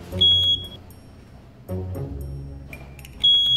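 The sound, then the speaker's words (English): A tank monitor alarm for underground fuel storage tanks beeps in short, shrill electronic tones, sounding a few times at uneven intervals over a low droning hum, with no voices. “But if you're not on site every day, your store attendant is your first line of defense for any alarms that may occur.”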